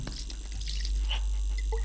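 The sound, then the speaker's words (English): Alcohol pours over a person's head and splashes down in a soft, uneven trickle with scattered drips, fairly faint, over a steady low background hum. “Pour, Pour it, it, over, your head.”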